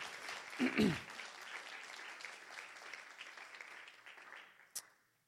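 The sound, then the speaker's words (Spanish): A church audience applauds in praise of the Lord, a dense wash of many hands clapping that swells early with a few cheering voices, then gradually thins and fades out, ending with one sharp clap. “Vamos, alguien dele un aplauso al Señor.”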